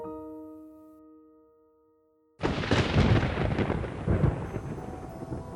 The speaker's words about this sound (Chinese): 雷声犹如朝池塘里扔去的石子，鱼儿们惊慌逃窜，却没能躲过溺毙在满池死水中的命运。